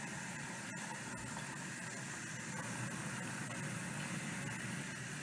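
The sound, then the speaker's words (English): Cold water from a tap pours steadily into a container, a continuous rushing and splashing hiss whose tone rises as it fills, holding for the whole stretch with no voices. “The tone of the water is rising.”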